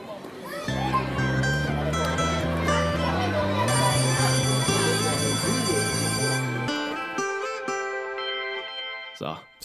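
A short, upbeat electronic outro jingle with bright synth tones over a stepping bass line, played at steady volume for about seven seconds, then thinning out and ending on a wobbly, warbling tone.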